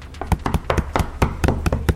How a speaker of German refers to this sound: Also, es hämmert an die Türen. An beide.